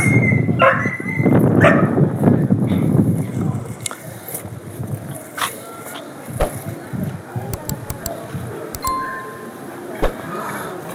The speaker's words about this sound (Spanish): Se asustó ese perro.